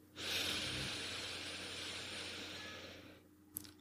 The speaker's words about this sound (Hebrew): אז מה אנחנו עושים? א' כל אנחנו לוקחים נשימה עמוקה במשך 3-4 שניות.